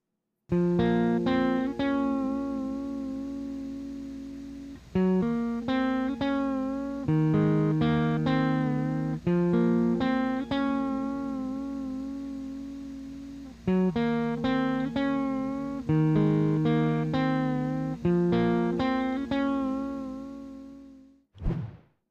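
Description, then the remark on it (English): An electric guitar fitted with an LSR nut plays repeating chordal phrases alone, with smooth tremolo-bar bends that make the sustained notes dip and waver in pitch, fairly loud, ending with a sharp final strum. “So you hear a pretty smooth tremolo action right here.”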